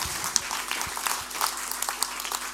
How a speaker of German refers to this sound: Geben wir Ihnen mal einen herzlichen Applaus. Merci vielmals.